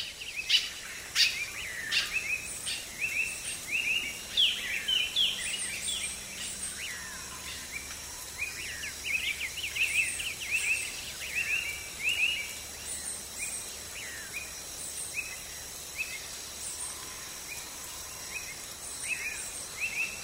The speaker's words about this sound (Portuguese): Avistamos pássaros de múltiplas cores e tamanhos. Como o sanhaço frade, um gracioso pássaro azul que habita a bocaina.